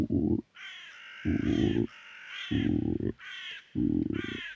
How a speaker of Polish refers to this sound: I gdy skrzeczała gruba ropucha